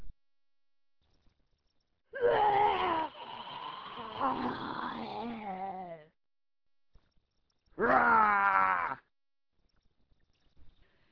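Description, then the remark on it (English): Two people imitate goblin roars with their voices for a production of The Hobbit: a long, strained, growling cry lasting several seconds, a pause, then a second shorter, harsh roar with wavering pitch. “So let's really put into our goblin roars that you both have to use the bathroom and you don't know where the bathroom is.”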